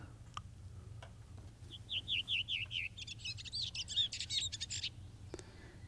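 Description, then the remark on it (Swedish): A redwing, in a professional recording, sings a short series of descending fluted notes, then breaks into a rapid, scratchy twitter, clear over a low steady background hum, with no voices. “Så, och det finns ju eh, många dialekter hos eh, Rödvingetrassarna.”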